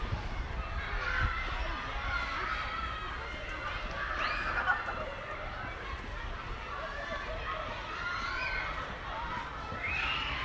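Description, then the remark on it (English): A wash of small children shouting and screaming in a school playground, with steady crowd chatter and occasional higher shrieks rising above the din. “But mostly it's screams of small children.”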